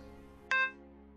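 A single short electronic beep as a phone call is hung up rings out with a bright tonal chime that briefly lingers before fading, set against a faint low hum.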